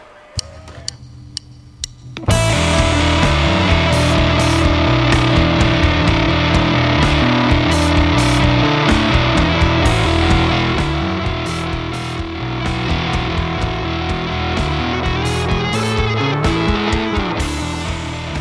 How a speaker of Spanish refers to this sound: Vamos a cambiar rotundamente de clima, nos vamos a poner oscuros, pero darkies. Oscuros, pero riferos. Oscuros, pero con distorsión.